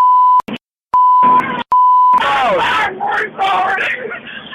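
A steady high censor bleep cuts in three times, chopping up bits of speech between the tones, then gives way to loud, overlapping excited voices and shouting.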